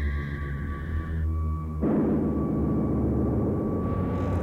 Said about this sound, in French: là, j'entends des vieux synthés avec des oscillateurs hein, qui qu'on fait monter en fréquence et puis il y a une espèce de bruit un peu sifflant résonnant avec un filtre résonnant derrière qui fait